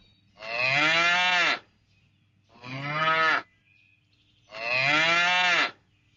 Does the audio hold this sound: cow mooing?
yes